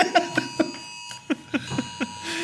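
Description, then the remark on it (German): A phone alarm rings in a quick series of bright electronic chirps, repeating in short bursts over a steady high tone, moderately loud, with no one talking. “Ich konnte es ausstellen. Ich habe einfach auf, aufs Handy geklickt.”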